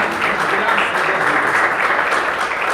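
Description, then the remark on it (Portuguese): A crowd at a worship gathering applauding steadily for the Lord, dense overlapping claps at a constant loud level with a faint murmur of voices beneath. “Assim eu agradeço a oportunidade, as palmas pelo Senhor.”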